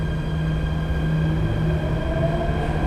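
A Jakarta MRT subway train in Indonesia running, bound for Lebak Bulus Grab station, with a steady low rumble and constant humming tones, a continuous mechanical drone with faint higher whine, no talking.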